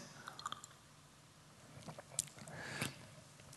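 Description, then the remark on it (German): Quiet mouth sounds of a speaker drinking water: small wet clicks and slurps, then a couple of louder gulps or swallows near the end, with no talking. “Und ähm, das Wasser, was man trinkt, guter Stichwort jetzt”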